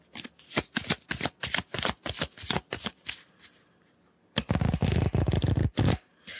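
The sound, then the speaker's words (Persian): Thin topic cards from the board game Dedaneh being shuffled: a run of quick, crisp riffling snaps for about three seconds, a pause, then a denser burst of flicking and fluttering. No voices. “این صدای کارت های موضوع بازی ددانه من مشکل زیادی تو کارت ها نمیبینم به نظرم کارت ها خوبن یه ذره نازکتر از چیزی که من توقع داشتم”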